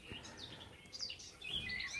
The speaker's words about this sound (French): Ah, les petits oiseaux, Il y en a plein, c'est un truc de malade. est ce que c'est cette histoire de confinement la con J'en sais rien, mais c'est hallucinant. J'ai l'impression que je suis entouré par les oiseaux.